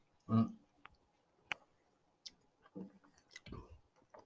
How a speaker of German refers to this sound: Ich weiß jetzt nicht, wie spannend das ist, dass man uns beim Schmatzen zuhört. Aber er ist auf jeden Fall sehr gut.